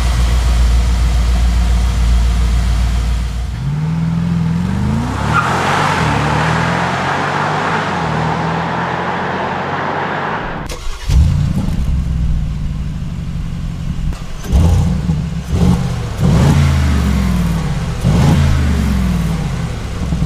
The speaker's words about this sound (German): Aber damit ihr natürlich wisst, was ich meine und ähm, wie so eine G-Klasse klingt, habe ich euch vom G63 äh, mal ein Soundbeispiel rausgesucht. Und zwar von der aktuellsten Variante.